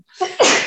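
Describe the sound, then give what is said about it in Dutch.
A single loud sneeze: a short rising inhale followed by an abrupt, breathy burst that trails off quickly. “Gezondheid.”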